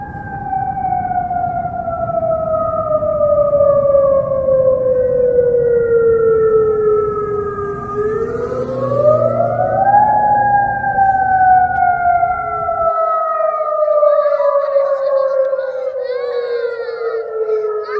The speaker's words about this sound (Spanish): Un dispositivo de alarma da una señal de advertencia audible, visual o de otra forma sobre un problema o situación anormal por ejemplo, la alarma que advierte la erupción de un volcán.